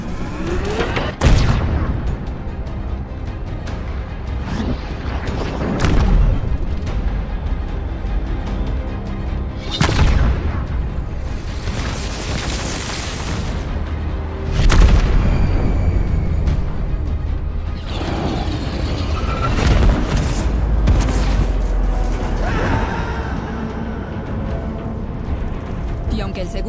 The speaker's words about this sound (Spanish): disparo del Mac y su impacto, su torpedo de plasma prácticamente nos hizo cenizas.